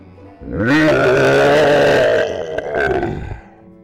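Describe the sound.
A voice imitates the roar of the oldest dinosaur king: one long, loud, rasping growl with a gravelly low rumble, swelling, holding for about two seconds, then a shorter second roar before fading.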